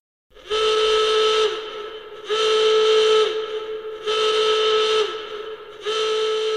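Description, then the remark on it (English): A steam train whistle blows in four long, loud blasts separated by short gaps, a steady high-pitched tone with a breathy hiss and no voices. “Oh, crumbs, it's the fire drill. Everyone, please leave the train single file.”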